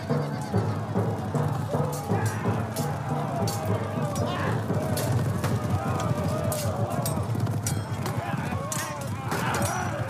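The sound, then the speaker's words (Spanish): A white horse ridden by Juana (Joan of Arc), in helmet and armour, gallops at night up to the top of the rocks with rapid, continuous, fairly loud hoofbeats, with indistinct voices mixed into the busy, constant background throughout. “Esa misma noche, Juana llega a la cima de las rocas montando su caballo blanco recubierta de yelmo y coraza sobre sus vestidos de mujer.”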